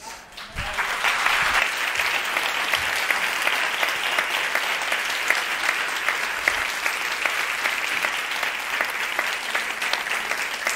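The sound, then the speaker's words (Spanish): Sustained audience applause, a dense wash of many hands clapping at a steady, loud level for about ten seconds without pause, with no voices rising above it. “No me voy a bajar después de ese aplauso.”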